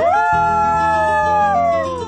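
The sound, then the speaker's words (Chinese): A coyote gives one long, loud howl that swoops up, holds a steady high pitch for about two seconds, then slides slightly down as it fades. No one speaks. “听起来像是草原狼的声音。”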